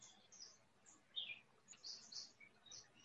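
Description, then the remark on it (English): Birds chirp and tweet in a quiet outdoor setting, several short high calls scattered across a few seconds, fairly faint over a low background hum. “So there is this just happened bird song intention to listen to the bird song rose with the bird song.”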